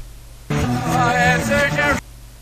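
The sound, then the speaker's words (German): A rock song passage played backwards: garbled, reversed-sounding vocals over dense, loud instrumentation, lasting about a second and a half and cutting in and out abruptly. “Vorwärts und das Ganze nochmal rückwärts.”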